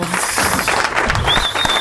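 Steady hand clapping from someone standing and applauding fills the short stretch, a dense run of quick claps at an even pace, with a faint high whistling tone rising near the end.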